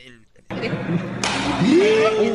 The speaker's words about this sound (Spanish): Eso que oyeron es la cachetada, es en serio, ¿eh?